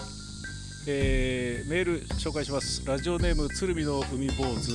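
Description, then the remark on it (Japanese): Cicadas sing in a steady, high-pitched buzzing drone that runs through the whole moment, sitting in the background beneath a man talking in the foreground. “セミが鳴いております”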